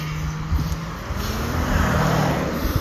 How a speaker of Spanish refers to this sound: Pero yo estoy caminando por ahí. Estamos disfrutando la vida, viendo los carros moverse.